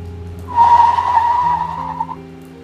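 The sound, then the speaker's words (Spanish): A car brakes hard on a rainy road, its tires letting out a loud, sustained screech for about a second and a half over a low engine rumble, then fading as it stops. “Hacía rato que no se cruzaba con ningún coche, o eso pensó en menos de un segundo mientras frenaba.”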